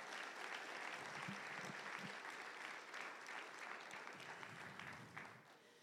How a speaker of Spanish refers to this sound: Démosle un aplauso al Señor, pues, démosle un aplauso.